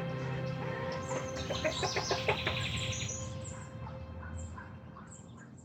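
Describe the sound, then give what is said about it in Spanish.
A hen in the countryside clucks in a quick run of short, rhythmic calls that peak midway, then trails off into softer, scattered clucks over a low background hum. No one speaks. “Y entre los cambios de vida es ese, vivir en el campo, tener una gallina como compañera de escritura, darle de comer a un conejo, y entender que, que la vida es más sencilla.”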